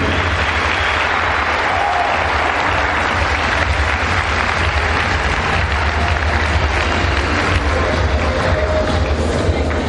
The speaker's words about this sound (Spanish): Y sinceramente les pido que sea un fuerte aplauso por estar aquí hoy, por darse tiempo de crecer.